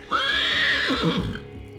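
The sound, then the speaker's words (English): A horse pulling a carriage lets out a single loud neigh as the carriage stops, a shrill wavering whinny that rises and trails off into a low fluttering snort of the lips, with no one speaking. “They flapped their lips and neighed so loud that it sounded like a train whistle being pulled next to her ear.”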